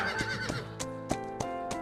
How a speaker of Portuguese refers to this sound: E o Lich, galopando, como os garanhões